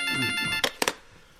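A mobile phone's electronic ringtone plays a bright, steady, buzzy tone for about half a second, then cuts off, followed by two or three sharp clattering bursts like the handset being handled.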